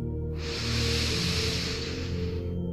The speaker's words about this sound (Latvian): Uztaisiet tādu ar skaņu, ka jūs dzirdat savu ielpu, tad mazliet aizturat elpu un tad lēni izelpa. Tāds tā kā okeāna skaņa, tāds. Ah, un vēl divas elpas tādas skaļas, skaistas, tā lai jūs sadzirdat okeānu un bezgalību sevī.